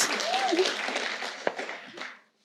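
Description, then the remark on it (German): A short burst of applause from a small group, a dense patter of clapping lasting a couple of seconds before cutting off, with a brief voice sounding faintly over it. “Wir können ihm einen Applaus geben, der ist so nett.”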